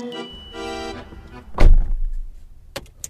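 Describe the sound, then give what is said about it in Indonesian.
A car door shuts with a solid thunk, preceded by rustling and a brief whirring sound, followed by a couple of faint clicks as someone gets into the car and settles into the seat. “Tatiana masuk ke dalam mobil dan langsung melemparkan pertanyaan kepada John”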